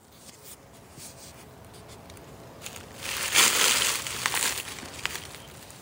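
Close, crackly scuffling through dry dead leaves, with scattered crisp rustles building to a louder, denser burst of crunching midway before settling into intermittent crinkles. No voices.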